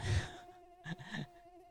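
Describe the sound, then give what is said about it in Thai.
A steady, thin buzzing hum from a swarm of flying termites in Bangkok, Thailand, quiet and continuous, with a couple of brief fluttering surges of wingbeats partway through. “สวัสดีครับได้ยินเสียงแมวเมาไหมครับ”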